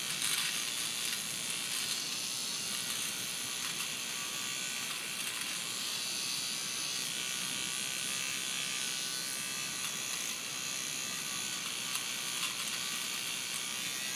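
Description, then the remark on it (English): An electric eyebrow trimmer buzzes steadily for the whole stretch, a high, bright motorized whine with a slightly raspy edge and no pauses, heard alone without any talking. “I've got one like this. It goes on your eyebrows.”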